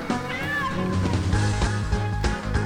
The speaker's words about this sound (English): Is that a cat? I heard a cat. Is this Animal Crossing? Is this one of the Animal Crossings? New Leaf.